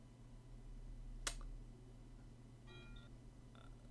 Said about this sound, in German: Hoch, da war doch eine Glocke. Ich hab doch eine Glocke ja, das ist bei mir. Wir haben mir so ein äh, Windspiel am Fenster hängen und die Katze lief gerade da dran oh, vorbei.